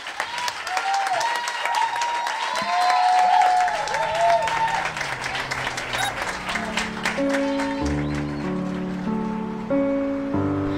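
An audience at a live performance at Café La Palma in Madrid claps steadily and loudly for about ten seconds, with a few high whoops or whistles early on. Toward the end, sustained musical notes begin to play beneath the continuing applause.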